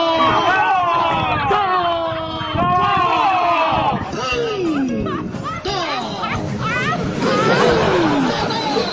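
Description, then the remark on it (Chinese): At a wedding at a local hotel in Dezhou, Shandong, relatives and friends of the newlyweds loudly mimic firecrackers with their mouths, a dense, continuous stream of overlapping popping and crackling vocal bursts mixed with crowd chatter throughout. “新人的几位亲友啊啊，用嘴来模仿鞭炮声，为婚礼烘托气氛。”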